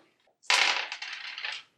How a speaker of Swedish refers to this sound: Massa tärningar. Eh, men inga lyckade. Inga lyckade.